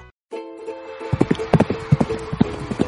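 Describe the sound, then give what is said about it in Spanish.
Horse hooves clip-clop in a quick, uneven rhythm, fairly loud, as a horse performs movements, over a steady humming tone that holds throughout. “Fuerte aplauso al caballo, que estuvo haciendo bien los movimientos, gracias.”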